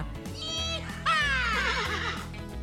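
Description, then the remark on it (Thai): A horse whinnies loudly, a high shrill call that slides downward and breaks into a quavering tremble, preceded by a shorter high cry and set over a steady low background drone. “ถ้าย้อนกลับไปสมัยก่อนนะคะ ม้าเป็นสัตว์เลี้ยงที่ช่วยงานมนุษย์มานานแล้วค่ะ เราเอาม้าป่ามาเลี้ยงราวๆ6,000 ปีที่แล้วค่ะ แล้วก็เอามาฝึกพื่อใช้ขนของ ใช้เป็นพาหนะขี่ให้พาไปที่นู่นที่นี่”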